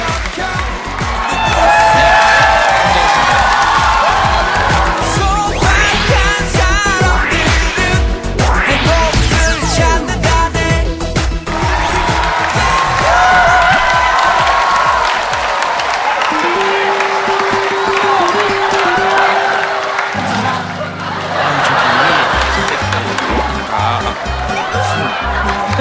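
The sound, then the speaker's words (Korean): A crowd claps and cheers loudly and steadily for about twenty seconds to welcome a guest, then a simple musical tune rises up underneath as the applause carries on. “게스트분 모시겠습니다. 그럼 박수로 환영해 주시기 바랍니다.”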